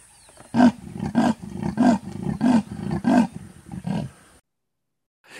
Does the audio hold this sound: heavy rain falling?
no